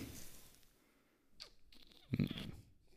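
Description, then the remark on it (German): Wet slurping as someone tasting wine draws air through a mouthful of it, with a brief sucking sweep followed by a louder gurgling burst; no talking. “Ach, entschuldigt die Geräusche, aber so macht man das als Kenner.”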